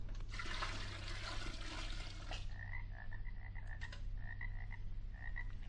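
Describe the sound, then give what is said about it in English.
A heavy gush of about a gallon of swamp water being poured fills the first couple of seconds, then a chorus of frogs croaks in quick, repeated chirps over a steady low hum, clear. “Instead of nightingales' tongues, I'll pour in some magic Transylvanian swamp water, about a gallon's worth.”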